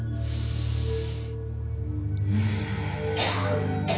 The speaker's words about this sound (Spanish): Tomen otra respiración profunda.